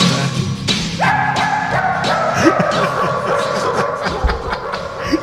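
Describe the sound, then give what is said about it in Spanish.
Dogs bark in a rapid, rhythmic string, their yips arranged to carry a song over a steady musical backing, loud throughout. “¿cuál es la cosa más rara que tienes de los …? Los perros cantando,”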